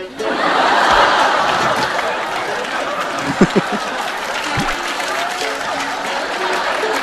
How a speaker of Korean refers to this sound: 잠깐, 아, 박수 치지 마세요. 박수 치지 마세요. 박수 치지 마세요. 박수 치지 마. 박수 치지 마.